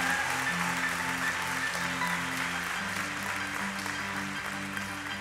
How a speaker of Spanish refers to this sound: Dale un aplauso más fuerte al Señor.